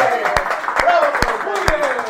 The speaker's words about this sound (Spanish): Aplauso.